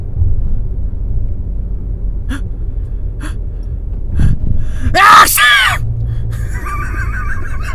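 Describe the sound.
Someone fakes a sneeze with their voice in a fake-sneeze contest: one loud, forced vocal burst partway through, preceded by a few faint clicks over a low, steady background rumble.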